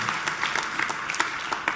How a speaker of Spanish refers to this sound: Dele ese aplauso a la presencia del Señor que está aquí esta mañana.